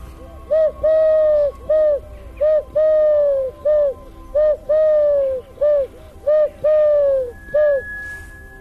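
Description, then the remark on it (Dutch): A Eurasian collared dove sitting in a tree coos loudly in a steady series of about a dozen hollow, tonal notes, short calls alternating with longer drawn-out ones, with no one speaking. “Oh nee, daar komt hij aan. Daar is hij. Kijk, daar zit hij, daar op die boom.”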